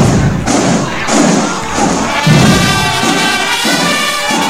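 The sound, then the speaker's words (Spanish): Heavy marching footsteps stomp in a steady rhythm, about two beats per second, loud and even throughout, with a faint crowd murmur underneath and no talking. “¡Atención! ¡Marchen!”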